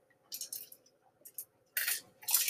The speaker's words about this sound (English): So give me a sec here. I'm gonna drink some water.